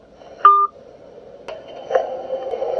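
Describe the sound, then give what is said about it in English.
A single short electronic phone tone beeps clearly, followed by a couple of soft clicks and a low, steady line hum, with no one speaking. “He just hung up the phone.”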